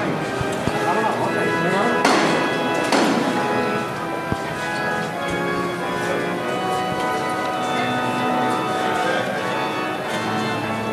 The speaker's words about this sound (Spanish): Escuchamos ahora el martillo.